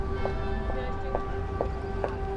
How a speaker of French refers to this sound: Nous sommes mercredi et il est midi. Comme ça s'entend. J'ai choisi le bonjour. Allez, vas-y, des cloches en plus.